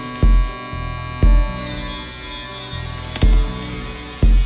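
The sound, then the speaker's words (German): An electric buzzing noise, originally from a hi-hat, swept through the frequencies with heavy reverb so that strong tonal resonances build; a steady buzz with four deep thumping hits landing at irregular intervals; no one speaks. “Schön viel Hall drauf, dann kommt eine Resonanz dadurch.”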